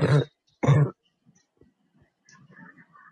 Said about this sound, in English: yeah, dude, sir, your, your cough sounds so much better, yo. Yeah. It sounds like, it sounds like a cough now.